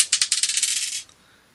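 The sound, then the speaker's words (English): The first of five dice being rolled: it rattles briskly for about a second, a quick run of bright clicks and clatters, then stops with one last small tap before silence. “dice, dice number one.”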